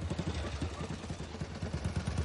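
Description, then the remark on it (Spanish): A motorcycle engine running badly sputters and knocks unevenly at low revs at a hacienda near Miramar, Argentina, in January 1952, its rough, irregular thumping fairly loud, with no one speaking. “Anda mal esa moto, ¿eh?”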